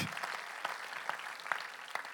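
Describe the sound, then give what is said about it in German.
A crowd claps steadily for a couple of seconds, a dense crackling patter of many hands with a few sharper individual claps standing out at a fairly even level. “Lass es auch so Leute wie du, Tänze, einen Applaus geben, die immer die Kanzler bringen.”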